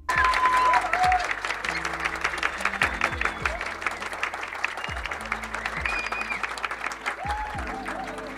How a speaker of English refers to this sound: Yes, yes. You hear that crowd? You hear that crowd going wild for me?